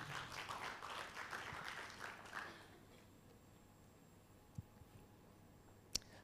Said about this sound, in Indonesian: Tepuk tangan bagi nama Tuhan.